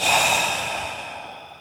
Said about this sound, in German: Langes, schweres Atmen.